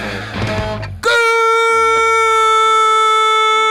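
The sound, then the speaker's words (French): A loud radio station jingle: a dense, busy musical burst for about a second, then a bright sustained synth chord ringing out over a deep bass tone, with no talking. “Tu me balances un petit, un petit jingle oh, Radio Campus Angers”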